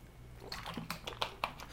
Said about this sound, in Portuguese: Enquanto você está pensando aí ah, se teve ou não impacto, eu vou tomando água aqui que eu preciso, senão não consigo falar.